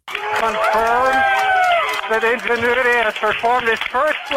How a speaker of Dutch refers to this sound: Ja, klinkt misschien een beetje alsof dit ook op Mars is opgenomen, maar dit was toch echt de jubelende controlekamer van de NASA.